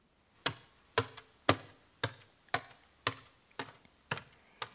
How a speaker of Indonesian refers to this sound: Ini adalah suara orang yang menaiki tangga. Kata tiruan bunyi untuk ini adalah tom-tom.